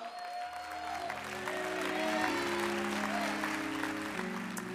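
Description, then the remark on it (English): An audience claps their hands as a hand clap of praise to the Lord in a church service, a sustained, dense, loud wave of applause over steady organ or keyboard chords ringing underneath. “Come on, that's a great patty cake, but you're fearless today. Can we give the Lord a hand clap of praise?”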